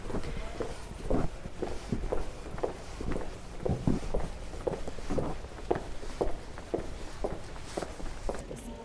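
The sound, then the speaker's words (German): Steady footsteps walk at an even pace through the Obertor, an old town gate in Chur, fairly loud, with a faint hollow echo around them and a low ambient hum underneath; no one speaks. “Jetzt glaube ich, laufen wir zusammen durch das Obertor.”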